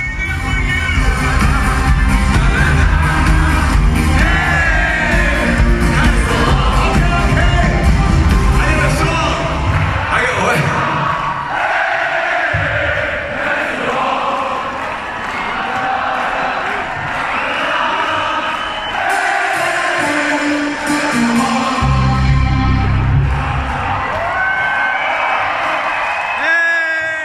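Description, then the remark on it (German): A large concert crowd roars continuously between songs, with loud cheering, whoops and high-pitched screams layered over a dense wash of yelling voices, sustained and intense throughout. “Also sowas hört man ja nicht mal, so eine Begeisterung hört man ja nicht mal bei Leuten, die man, also ich wirklich toll finde.”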